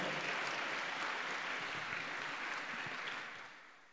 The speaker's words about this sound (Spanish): Denle el aplauso a Cristo si se lo va a dar, por favor.